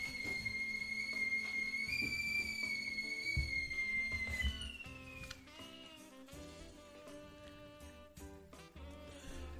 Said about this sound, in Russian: У тебя там полицейский свистит?